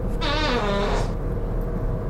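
A single cartoonish fart sound effect from a soundboard, set off by hitting the wrong button, a loud, buzzy and wavering blast lasting about a second, followed by quiet background hum with no talking.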